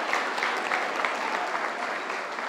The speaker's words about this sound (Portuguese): então uma salva de palmas. Parabéns, Olha só.